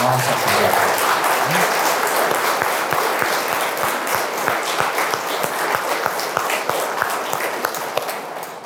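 An audience applauds steadily, a dense wash of many hands clapping at an even loudness that holds throughout, with a brief murmur of voices near the start.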